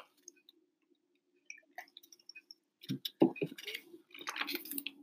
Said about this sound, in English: I'm just going to take a quick swig of water.